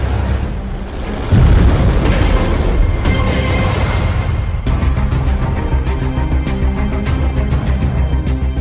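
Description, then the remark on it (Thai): A Harpoon missile is launched from its tube aboard the Thai navy ship HTMS Bhumibol Adulyadej: a loud, sustained roaring blast erupts after a brief lower rumble and keeps going for several seconds, with rough crackling bursts layered over a heavy low-end roar and no voices. “ข่าวจาก OTC ถึงเรือหลวงภูมิพลอดุลยเดชให้โจมตีกองบัญชาการทหารฝ่ายข้าศึกบนเกาะบาโว เซียวซาบวัดแผนยิงร้อยชนบทเทียน ฮาพูนเริ่มยิง อาวุธปืนทวีฮาพูนบนท่อ”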